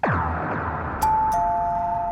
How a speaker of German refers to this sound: Oh, die Türklingel klingelt.